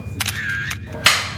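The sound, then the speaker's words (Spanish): A camera shutter clicks several times as a photo is taken with a guest: two quick mechanical snaps, a longer whirring stretch, then a sharp bright click near the end, fairly loud over a faint hum. “nos una foto con el invitado, ¿no?”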